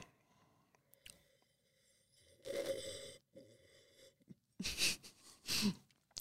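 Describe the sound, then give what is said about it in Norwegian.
Three airy slurping sounds as air is sucked through wine held in the mouth while tasting it, each a short hissy burst with brief pauses between, fairly loud with no talking. “jeg må svøre litt først, og så må jeg prøve på nytt den der slurpet. Så, så, så syp litt luft mens du har vi inn i munnen.”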